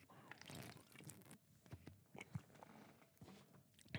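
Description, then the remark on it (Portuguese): Someone with a dry throat drinks water, with a series of soft gulps and wet swallowing sounds at a steady pace. The sounds are quiet, with no talking. “Eu tô com a garganta seca. Deixa eu beber água de novo.”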